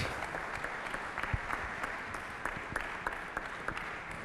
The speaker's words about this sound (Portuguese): E há um anfitrião que vamos receber, de certa forma também é anfitrião, José Manuel Silva, presidente da Câmara Municipal de Coimbra, ex-bastonário da Ordem dos Médicos. Um aplauso.